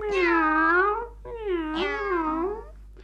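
A cat meows twice, loud: a long drawn-out cry followed by a second wavering meow after a brief pause, with no other sounds around it.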